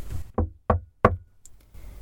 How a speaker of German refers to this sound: Entschlossen stehe ich auf, gehe zur Tür und klopfe erneut.